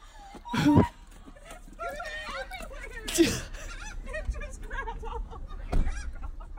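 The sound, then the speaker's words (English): Harsh honking calls from a bird at a car, being fed out of its sunroof, sound in a few loud bursts, mixed with people laughing and chattering over steady outdoor background noise. “Don't feed birds out of your sunroof”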